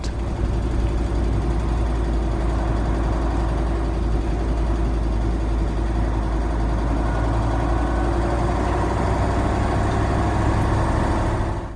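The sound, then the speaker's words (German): A heavy truck engine drones loudly as the driver revs fully through the gears to keep up with traffic, a deep steady rumble that holds for the whole stretch with only slight shifts in pitch, no voices. “beim LKW liegt die Ursache in der starken Motorleistung des Wagens und in der Tatsache, dass ein Lkw-Fahrer, um mit dem Verkehr mitzukommen, immer die Gänge voll austritt.”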